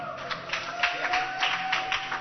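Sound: audience clapping hands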